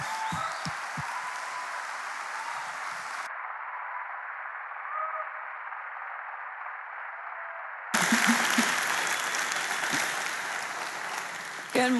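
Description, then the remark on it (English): An enthusiastic round of applause from a large audience, loud and steady for about twelve seconds, with the clapping sounding muffled and duller through the middle before returning bright and full. “why don't you join me in giving Lynn a big, rowdy round of applause?”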